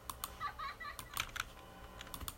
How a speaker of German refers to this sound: Ich berühre die ganze Zeit die Tastatur. Hilfe. Ich muss aber mal meine Hand wegnehmen.